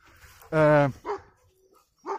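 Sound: small dog barking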